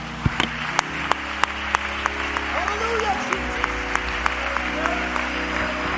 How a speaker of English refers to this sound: now put your Bibles on your laps and let's clap our hands unto the Lord, all the people of God.